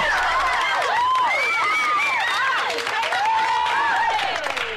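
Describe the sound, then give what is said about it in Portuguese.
Steady, dense applause fills the whole few seconds, mixed with a cheering crowd whose rising and falling whoops and shouts ride over the clapping at a constant, fairly loud level. “É, mais, um, não, mais uma salva. Só aplauso, só aplauso.”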